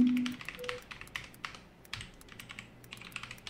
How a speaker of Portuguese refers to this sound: Esse teclado gamer aqui é bom pra errar. Eu sou... Ai, errei. Vamos lá de novo. Ah, não. Tá em caps lock.